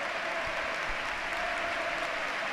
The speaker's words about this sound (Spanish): Bueno, el cambio era evidente y es que esta es la ovación que le da el nuevo Mirandilla a Teo Gongonda, el autor de los dos goles de hoy, el primero un auténtico golazo.